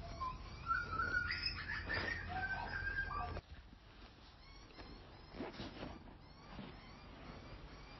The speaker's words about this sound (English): he might be able to hear the little butcher birds calling in the background, and then the mum and dad bird just came in and gave this beautiful sound of the beautiful sound that butcher bird